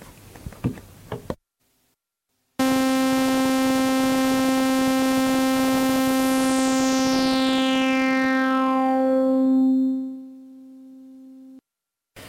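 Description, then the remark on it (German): A steady, buzzy synthesizer note holds for about nine seconds while a resonant low-pass filter, its resonance turned up a little, sweeps downward, a whistling peak gliding lower as the tone grows darker and duller, fading near the end. “Genau, ein Tiefpass wieder. Und Aber ich habe jetzt die Resonanz, Resonanz, ein bisschen aufgedreht.”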